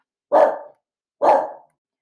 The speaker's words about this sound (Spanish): Alerta de perros. lo siento.